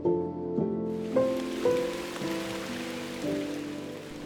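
Steady rainy-season monsoon rain begins to fall in Ssangsin-dong, pattering down in a continuous hiss, heard alongside a soft, slow melody of sustained tones that shifts pitch every second or so.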